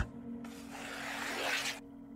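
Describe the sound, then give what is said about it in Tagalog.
A pencil scratches across paper in one continuous stroke lasting just over a second as someone draws in a classroom, fairly quiet, with a faint steady hum in the background and no voices. “Panay lang ang drawing niya.”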